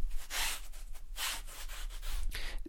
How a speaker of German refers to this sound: es ist schönes Wetter und es ist absolutes Barfußwetter. Im Haus, gerade im Keller, ihr hört gerade Füße auf Beton.